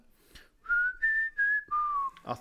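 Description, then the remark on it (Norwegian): A short whistled melody in the style of a western tune: four sustained, clear notes that rise slightly, hold, then drop, with brief gaps between them, ending in a soft breathy click. “Det er en sånn plystremelodi”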